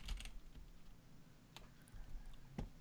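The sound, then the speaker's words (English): Quiet computer keyboard typing while writing a story pitch: a few scattered key clicks and taps spread over a few seconds, with a low background hum and no speech. “Hold on. I got to start a new paragraph.”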